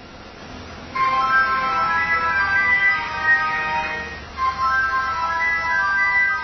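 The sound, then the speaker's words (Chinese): A phone ringtone plays: a bright, electronic melody of stacked tones begins after a moment of low hiss, breaks off briefly, then starts again, loud and steady with no one talking. “来电话了，来电话了。”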